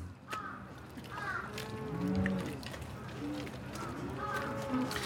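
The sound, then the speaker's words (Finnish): Several cattle on a farm in Fukushima, Japan, where 260 cows are kept, moo in overlapping, drawn-out calls at a steady moderate level, with a busy background hum and occasional higher squawks mixed in. “Yksi sellainen on 260 lehmää hoitava”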